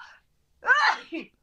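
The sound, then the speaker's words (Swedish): A single sharp sneeze from an allergic person bursts out after a brief pause, with a short breathy tail and a faint vocal sound just before it. “Prosit! Prosit.”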